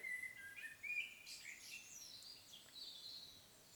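High, thin chirping from several baby birds in their nest, busy and overlapping, like nestlings calling together. The peeps are fairly faint and close-knit, with no voices.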